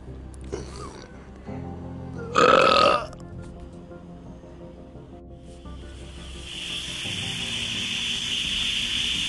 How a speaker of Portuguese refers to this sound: Isso é uma panela de pressão.